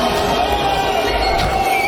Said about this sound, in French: oui, alors il a été applaudi, mais il a été aussi honni par la foule.